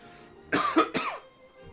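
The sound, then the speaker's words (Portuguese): A quick burst of two or three rough coughs, the first pair run together and a final shorter one after a brief gap, moderately loud with no talking around them. “Saúde.”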